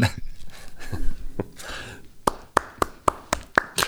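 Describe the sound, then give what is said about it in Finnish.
Applause after a joke: a slow, steady run of about seven sharp claps, evenly spaced, following a stretch of soft breathy rustling and murmur. The claps sound like one person clapping. “Nämä no ovat ne aplodit.”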